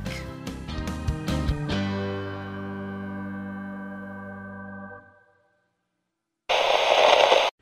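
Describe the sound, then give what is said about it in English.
A bright musical jingle rings out and fades into silence, then a loud, harsh burst of TV static hisses for about a second before cutting off abruptly. “Channel KRT, cut to static.”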